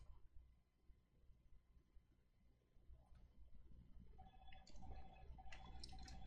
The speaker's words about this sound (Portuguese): Mas vocês esperam só um pouquinho, porque eu vou tomar um pouquinho de água, que a garganta já tá, dá.